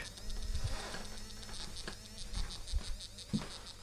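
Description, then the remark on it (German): An obstacle-detecting device vibrates strongly with a steady electric buzzing hum, like an insect drone, with a dense band of high overtones and a few soft low thumps, heard alone without any talking. “Entferne ich mich wieder etwas davon, vibriert es heftig, bewege mich etwas weiter weg.”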